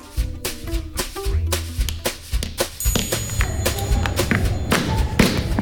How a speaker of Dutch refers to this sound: geklop dat u hoort, dat ben ik. U ziet dit niet, maar ik heb een charmante plastic veiligheidsbril op... en ik sla als een bezetene met een hamer op een groen potlood.